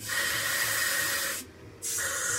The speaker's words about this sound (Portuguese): Brat e Mihail tocam na área de pressão antes da porta e a porta se abre, fazendo o seu típico barulho.